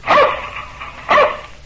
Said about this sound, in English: That's my dog Tige. He lives in a shoe.